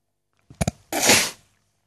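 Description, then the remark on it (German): New sneakers creak: two quick sharp clicks, then a longer, rough, rasping creak lasting about half a second, with no talking around it. “Hast du ja gehört, mit den neuen Turnschuhen? die knarzen irgendwie so komisch.”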